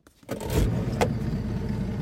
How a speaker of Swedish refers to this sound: Ja, nej men det kanske är bäst att, eh, att, att du eh, startar motorn och drar in mot eh, säker land innan skarvarna kommer i mängd och, och bosätter sig på båten där. Ja. jag får då, oj, dra igång här då och pipa hemåt då igen.